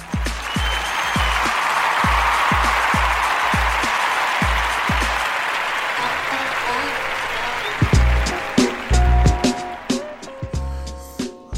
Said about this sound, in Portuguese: Stanley morreu. Salva de palmas para Stanley.